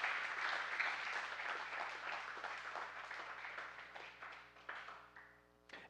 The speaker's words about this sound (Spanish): La palabra del Señor, denle el aplauso fuerte al Señor, Él es el príncipe de paz.